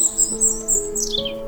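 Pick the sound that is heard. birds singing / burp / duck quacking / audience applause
birds singing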